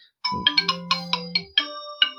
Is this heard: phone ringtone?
yes